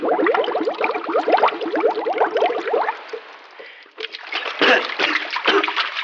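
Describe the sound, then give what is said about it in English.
A person falls into chilly water beside a boat with a loud, heavy splash, followed by churning, sloshing and splattering as the water settles and the person thrashes about. “have you drowned?”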